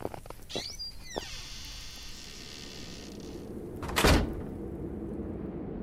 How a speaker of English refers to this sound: She opened and closed the wooden workshop door behind her, flicking the light switch as she did.